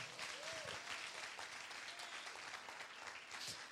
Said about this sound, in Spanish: Si usted lo cree, den un aplauso fuerte a Jesucristo.